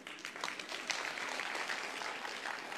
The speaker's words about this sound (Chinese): 对你这个掌声啊，还是不够热烈，这就不值得我用意念。